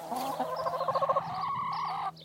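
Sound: chickens clucking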